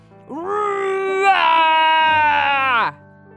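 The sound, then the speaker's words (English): A voice imitates a tiger's roar with one long, drawn-out, wavering cry that is loud, rising and holding for a couple of seconds before cutting off abruptly. “Chubby Tiger stretched his neck and roared toward the sky.”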